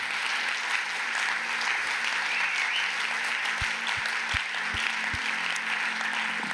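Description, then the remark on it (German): Sustained applause from a crowd, a dense, steady wash of many hands clapping throughout, with a few low thumps near the end and no one speaking. “Lass uns doch den Applaus geben.”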